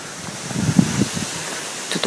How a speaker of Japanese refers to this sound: 風が強いので雑音が多いかもしれませんが、よろしくお願いします。はい、ということで歩いてます。